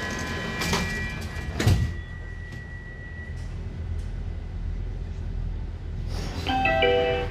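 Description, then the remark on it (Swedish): Train doors slide shut with a couple of sharp clunks and a chime, then a steady low rumble builds as the train pulls away, ending in a tonal electronic whine as it gathers speed. “Då åker vi vidare. Se upp för dörrarna. Dörrarna stängs.”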